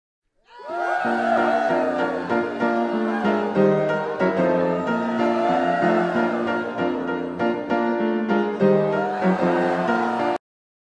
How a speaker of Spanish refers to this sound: En Amlolandia, amigo, pásenme la cortinilla.